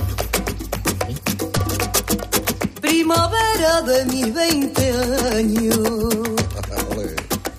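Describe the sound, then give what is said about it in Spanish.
A cover version of a tango-waltz song, a mix of tango and waltz, with a solo vocalist singing a sustained, expressive melody over a steady, lilting three-beat accompaniment of deep bass pulses and plucked chords, loud. “Uno de un tango, que es una mezcla entre tango y vals, ¿no?”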